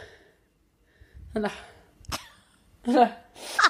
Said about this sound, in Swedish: Det är som att jag håller på att nysa hela tiden. Alltså förlåt.